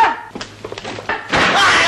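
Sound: door slamming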